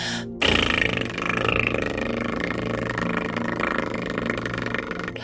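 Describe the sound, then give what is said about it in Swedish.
A person blows one long, loud raspberry with the tongue as a voice exercise, a continuous buzzing flutter lasting several seconds after a brief silence, with no talking over it. “Jag gör pruttljudet för tungan ska vara med.”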